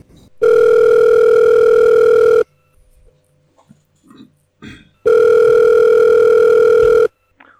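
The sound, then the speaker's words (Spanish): Two long, steady electronic ringback tones on an outgoing phone call, each about two seconds, separated by a quiet pause with faint handling noise; loud and clear, no talking. “Venga, va, vamos a llamarle.”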